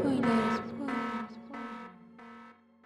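A loud, buzzy alarm sound effect used as a spoiler warning blares in four quick repeated pulses over a steady low drone, each blast harsh and electronic, fading slightly toward the end.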